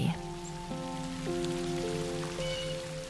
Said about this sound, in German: Doch plötzlich landet etwas Nasses auf deiner Nase. Und dann auf deiner Hand und deiner Wange. Regentropfen. Es fängt an zu regnen.